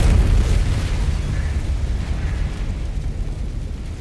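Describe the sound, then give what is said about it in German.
A slaughterhouse goes up in flames: a deep explosion booms, then trails into a long, heavy rumble of roaring fire and crackling debris that stays loud and low throughout, with no voices. “Ich sehe den Schlachthof in Flammen aufgehen.”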